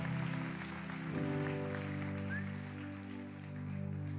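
A crowd at the North Georgia revival claps in steady, dense applause for several seconds, with sustained keyboard chords droning underneath and no one speaking.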